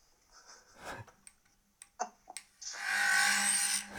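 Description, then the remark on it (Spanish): A few sharp clicks and ticks, then the small motors of an FPV drone abruptly spin up into a loud, steady high-pitched whirring buzz that holds to the end. “arrancarnos el FPV aquí en directo.”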